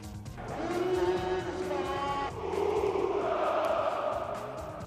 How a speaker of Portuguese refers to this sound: o guarda-redes Leverkusen, o finlandês Lucas Radecki, subiu às bancadas e entoou cânticos com as claques, enquanto a restante equipa e o treinador cantaram saltavam e aplaudiam no relevado. Vamos ouvir.